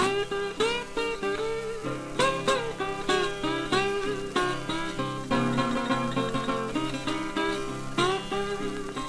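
A 1934 blues record, the original recording of the song, plays its instrumental opening, with bright plucked strings ringing out in a steady, driving rhythm at a fairly full, even volume and no voices.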